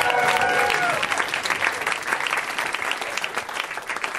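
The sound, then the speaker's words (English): A Los Angeles audience claps steadily for several seconds for Brent Weinbach, a dense wash of applause that fades slightly toward the end, with a brief tonal whistle or cheer near the start. “Guys, let's hear it for Brent Weinbach. Come on.”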